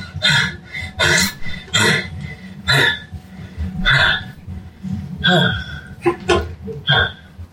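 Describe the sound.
Heavy, ragged breathing: about eight or nine loud, harsh breaths in a steady, rapid rhythm, like someone panting hard after exertion, with a low rumble underneath.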